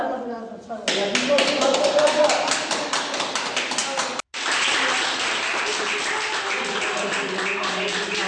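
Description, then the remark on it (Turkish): Hospital staff clap steadily in a dense, sustained round of applause as patients who recovered from coronavirus are discharged from hospital, with voices mixed in, briefly breaking off for a moment before the clapping resumes. “Bugün onlarca hasta günlerce yattıkları hastaneden alkışlar eşliğinde taburcu edildi.”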